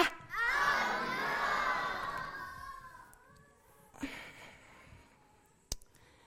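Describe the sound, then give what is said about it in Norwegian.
A group of children, on a count of three, shout a woman's name together in one loud, drawn-out call that fades over a few seconds, followed by a couple of faint sharp knocks or clicks. “Så når jeg teller til tre, kan dere hjelpe meg å rope på Anna, da?”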